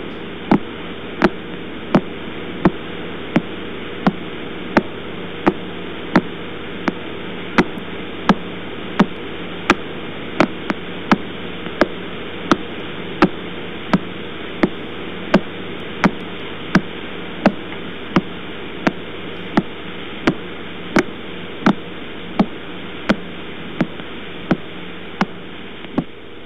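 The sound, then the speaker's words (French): The radio signal of pulsar 0329+54 rendered as sound: sharp, evenly spaced clicks, slightly faster than one per second, ticking steadily like a metronome over a constant bed of static hiss, with no voices. “Alors on écoute un pulsar.”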